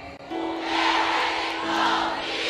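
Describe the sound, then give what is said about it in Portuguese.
An audience shouts together in one loud, sustained roar of many voices, holding steady for a couple of seconds with a bright, raucous crowd texture. “Grita para Satanás entender”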